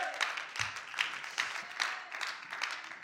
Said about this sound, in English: Somebody give God some praise today. Hallelujah! Come on, clap your hands today.